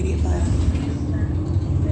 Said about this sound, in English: That's a large truck um, crossing path.